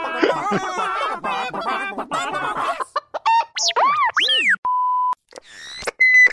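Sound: chicken clucking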